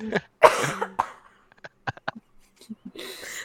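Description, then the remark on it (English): A loud cough bursts out near the start, followed by a few short, quieter throat sounds and breathy noises, ending with a soft exhale. “sorry, I had to cough.”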